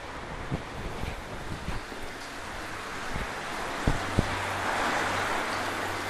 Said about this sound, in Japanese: この音は雨ではなくて噴水